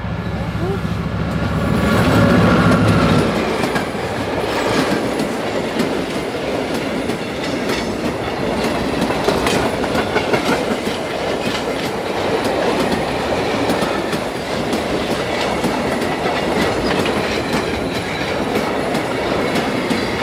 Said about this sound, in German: Da kommt ein Zug. Da kommt ein Zug. Ein Zug, ein Zug. schnell weg.